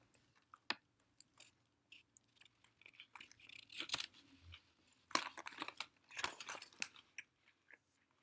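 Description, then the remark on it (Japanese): Someone chews a hefty, voluminous sandwich with crunchy, moist bites, an irregular run of crackly bursts and soft smacking that swells in a few louder chomps, with no talking. “あの、お先にじゃあ、あの、いただきます。”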